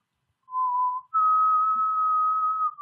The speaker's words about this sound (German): Deine Mutter pfeift viel schöner als wie du. Es tut mir in den Ohren weh, so sehr.